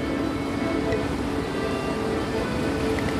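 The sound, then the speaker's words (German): Heavy rain pours down steadily in Berlin, a dense, continuous hiss and patter that stays loud and even throughout, with no voices. “Es regnet in Strömen und ich suche die Bundespressekonferenz.”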